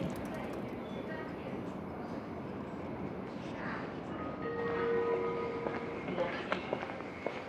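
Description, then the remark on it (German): Steady rumbling ambience of a moving train travelling via Lucerne to Nottwil, Switzerland, with a continuous low roar, a brief high whining tone partway through, and faint clatter and murmuring voices in the background. “und fahre eine Woche später mit dem Zug über Luzern nach Notwil.”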